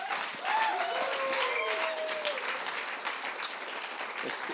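A standing audience applauds steadily, dense clapping at a constant level, with a few faint voices and whoops briefly rising above the clapping, welcoming a speaker giving his first sermon alone.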